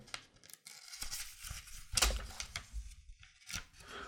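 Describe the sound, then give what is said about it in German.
Dry paper tearing, the first page ripping loose from the 30-year-old glued binding of an old comic magazine in several rough bursts with short pauses, the loudest rip near the middle, followed by softer crinkling and rustling. “Und das Geräusch, was ihr gerade gehört habt, ist tatsächlich die erste rausgefallene Seite.”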